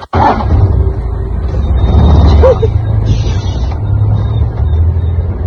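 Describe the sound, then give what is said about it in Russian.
A jeep races at full speed across completely flat, hard, cracked ground, its engine roaring in a steady, loud rumble with rough road noise rattling underneath, continuous from start to finish. “Я запрыгнул в машину, и скоро мы уже мчались на полной скорости по совершенно плоской, твердой, растрескавшейся земле.”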